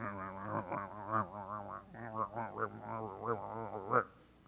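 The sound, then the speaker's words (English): A voice imitates mumbling under one's breath, mimicking how the word for grumbling sounds: a low, continuous wordless drone with wavering pitch and rhythmic murmuring pulses, lasting several seconds before it stops abruptly. “And the word itself sounds like the sound you make when you mumble under your breath.”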